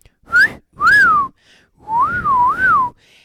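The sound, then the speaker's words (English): Men catcall-whistling at a woman, loud: two quick swooping whistles followed by a longer wavering one that rises and falls twice, with brief gaps between and no talking. “And whistling at me.”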